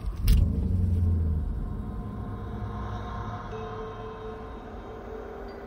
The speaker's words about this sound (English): He started the car.